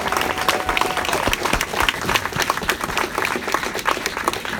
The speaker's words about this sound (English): please give them another round of applause. Round of applause for them